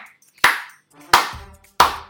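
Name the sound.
hand clapping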